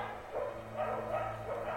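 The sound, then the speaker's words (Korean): Many dogs of a neighborhood bark in a rapid, overlapping chorus, several yelping bursts running together over a steady low hum. “그 소리가 너무도 시끄러워서 잠에서 깨보니 한두 마리가 아닌 정말 저희 동네에 있는 개는 몽땅 다 짖는 것처럼 그 개 짖는 소리가 상당히 요란하고 시끄러웠습니다.”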